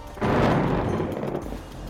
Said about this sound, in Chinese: 接着呢，突然就一声打雷一样的巨响，